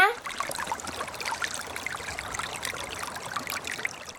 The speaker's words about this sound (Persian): ما تو فارسی به این صدا میگیم چک چک